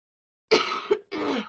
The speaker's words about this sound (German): Es tut mir so leid wegen einem Husten, aber die Verkühlung.